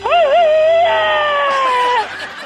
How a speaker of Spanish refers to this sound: Échate un grito alterado, viejón.